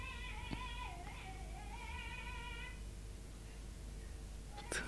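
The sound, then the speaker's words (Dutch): Faint, distant high-pitched voices of schoolchildren passing by on the street drift in from outside, a few drawn-out calls and shouts rising and falling over a steady background hum, with no one speaking nearby. “Ja, nee, je hoort dat we, dat we hier aan de straat zitten. Dat ook eh, onze schoolkinderen voorbij lopen.”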